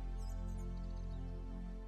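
Faint, high birds chirping in quick little bursts, sitting above a steady, sustained bed of orchestral music; quiet overall, with no talking.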